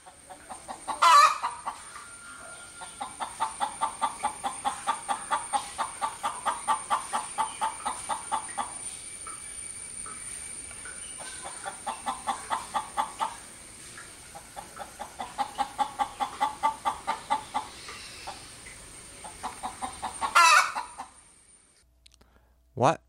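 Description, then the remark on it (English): A chicken, Spurslock McWaddles, clucks in long, rapid rhythmic runs, several bouts separated by brief pauses, steady in loudness, with a sharp louder squawk near the start and another near the end. “We'd like to thank you for listening and remind you always to listen with respect to the wisdom of the chicken.”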